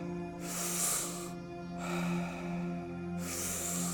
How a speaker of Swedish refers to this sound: Djupa andetag. In med lugnet, ut med stressen. Ingen paus mellan andetagen. In, ut. In, ut. In, ut. In i magen.